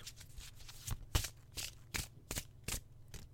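A deck of tarot cards being shuffled, with repeated soft papery riffling bursts at a steady rhythm, about eight in a few seconds, over a faint low background hum.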